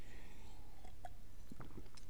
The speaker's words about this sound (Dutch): Neem ik even een slokje water.